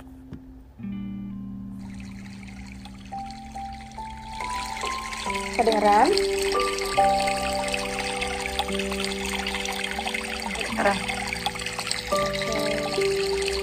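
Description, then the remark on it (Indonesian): Calm meditation music with sustained tones and slow melodic lines layered over the steady rush of flowing water, building fuller after a few seconds; a voice briefly speaks near the start. “kita dengerin musik meditasi ya bareng-bareng”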